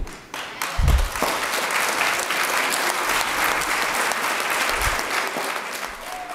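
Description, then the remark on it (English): Sustained audience applause at a University of Alaska Anchorage Black Student Union event, a dense, steady wash of many hands clapping at once that holds loud and even for several seconds, with a few low thumps mixed in. “And though I graciously accept your applause, we all know I couldn't have done this without a very, very dynamic team behind me.”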